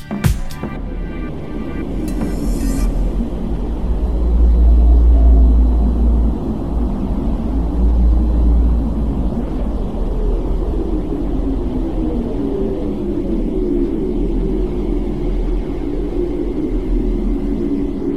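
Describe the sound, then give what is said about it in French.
A deep, continuous rumbling drone with slow, gliding moans that sound like whale calls, eerie and spacey, filling the whole recording with no one talking. The sounds were captured in space and played in an immersive installation at the back of a farm. “J'entendais comme des bruits de baleines. J'ai fermé les yeux et je me suis sentie partir.”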